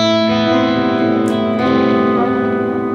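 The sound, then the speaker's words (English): A sustained electric guitar chord through a Marshall amplifier rings out loud and clean, bathed in lush plug-in reverb and echoing plug-in delay that smear the notes into a shimmering wash, with no voices. “The reverb is a plug-in, and the delay delays are Logic plug-in.”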